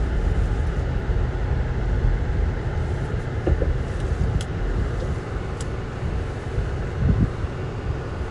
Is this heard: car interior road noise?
yes